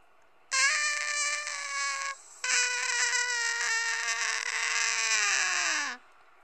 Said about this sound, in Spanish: Y un grito desgarrador se dejó escuchar en el estacionamiento.